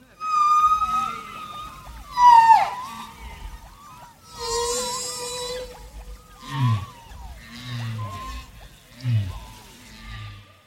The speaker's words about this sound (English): And by the track's end, the whale songs are the only sounds left.